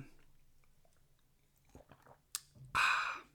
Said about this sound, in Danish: Jeg tager lige lidt, lidt vand her.